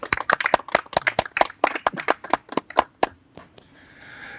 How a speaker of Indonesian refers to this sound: Juga teman-teman yang hadir di sini ya, tepuk tangan yang ikhlas.